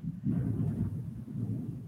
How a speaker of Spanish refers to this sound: No, está cañón, está tronando, pero sabroso el cielo.